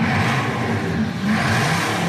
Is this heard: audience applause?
no